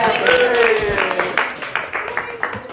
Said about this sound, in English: Let's give these guys a clap. Say thanks for helping.